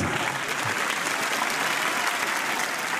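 Steady audience applause as a man is introduced, filling the whole stretch, a dense, even patter of many hands clapping at a constant loudness, with no voices rising above it.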